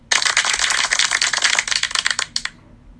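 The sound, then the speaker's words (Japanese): A burst of canned applause: dense, crisp clapping that starts abruptly, holds steady for about two seconds, then thins into a few scattered claps and stops. No voices. “うんこの拍手とかもねいるのかどうか分かんないんですけどまあこれからちょこちょこ使っていこうかなあのと思いますので”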